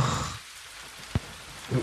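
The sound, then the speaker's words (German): Steady rain falls at night in fog, a soft continuous hiss with scattered drop impacts, including one sharp splash midway; no one speaks. “Und dieser Nebel, dieser Regen, dieser Geruch.”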